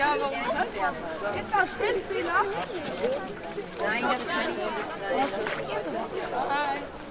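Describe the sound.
A group of schoolchildren chatter and call out over one another as they walk slowly behind a man in a long cloak toward a 10-metre stone Roland statue, a steady, lively babble of overlapping voices with occasional higher-pitched shouts.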